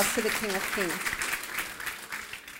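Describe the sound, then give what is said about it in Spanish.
A crowd applauds steadily, a dense, crackling wash of many hands clapping that holds fairly loud throughout, with a few brief voiced shouts or cheers rising over it near the start. The applause is given to God, the King of Kings. “Ahora sí, déle ese fuerte aplauso al Rey de Reyes.”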